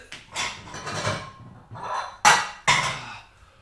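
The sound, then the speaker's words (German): Pasta plates being taken out while cooking: a brief rustle and scrape, then two sharp ceramic clinks about half a second apart, with no one talking. “und hol mir schon mal die guten Pasta-Teller.”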